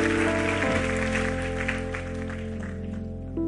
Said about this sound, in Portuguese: Vamos aplaudir a ele, vamos ficar em pé.